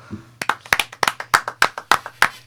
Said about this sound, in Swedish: En applåd på den va?